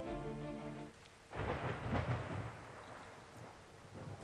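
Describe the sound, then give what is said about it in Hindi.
A deep rumble of thunder rolls in over steady, heavy monsoon rain, swelling loud for a couple of seconds before settling back into a constant wash of downpour. “monsoon भी मुझसे नाराज था मुझे आज फिर डांटने आ गया था”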